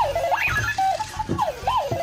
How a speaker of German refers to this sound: Ähnliches Kaliber, Clocky, eine Art Wecker auf Rädern. So here's what it's doing.